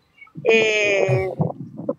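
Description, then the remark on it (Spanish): A single long, wavering goat bleat rings out clearly, followed by a couple of shorter, softer bleats or calls trailing off. “Y actualmente yo aún sigo la tradición, pese a que mis padres ya no están, mis abuelitos tampoco, pero yo sigo con la tradición, sigo con mis cabras.”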